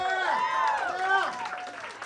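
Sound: audience round of applause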